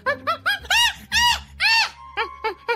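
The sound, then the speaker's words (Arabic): A monkey screams in a quick series of harsh, wavering calls, about ten in all. The loudest, longest cries come in the middle before shorter, rougher calls close in, with no talking. “صحيح أحيانا بتكون غريبة ومريبة مثل انه اذا بتسمع صوت قرد عم بيصرخ بصوت خشن ومخيف هذا بيعني انه مبسوط وعم بضحك”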